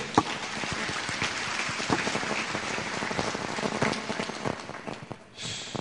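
A group breaks into applause, a dense, steady crackle of many hands clapping for about five seconds before it quickly dies away. No one speaks over it.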